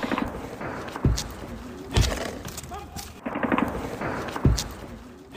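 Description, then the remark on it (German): Three sharp rifle shots crack out at irregular intervals in Kherson, Ukraine, each with a heavy low thump and a short echoing tail, over a steady outdoor background hum with faint, indistinct murmuring. “Ja, ich habe zum einen Gewehrschüsse mitgebracht”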